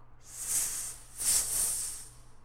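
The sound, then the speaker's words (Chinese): A voice imitates a weasel character hissing as it speaks, letting out two drawn-out, breathy, snake-like hisses, the second slightly longer and swelling in the middle, with no words spoken. “他边说边发出嘶嘶的声音。”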